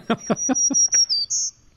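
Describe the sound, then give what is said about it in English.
A black-throated green warbler sings a short, clear song: a run of quick buzzy notes over a thin high tone, ending on a higher drawn-out buzz. “That's the uh, that's the song of the black-throated green warbler, which you would hear in the spring when they when they come through.”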